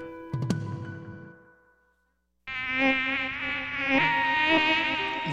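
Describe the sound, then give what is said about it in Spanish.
After a brief metallic strike that rings out and fades to silence, a loud mosquito buzz starts up, a thin whining drone that wavers in pitch and keeps going steadily. “los mosquitos pican, molestan.”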